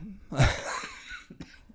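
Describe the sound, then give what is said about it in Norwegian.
A single harsh, forceful cough bursts out, followed by a short raspy tail and a couple of softer breathy sounds. “Bare hoste hostefaren den koronaen din.”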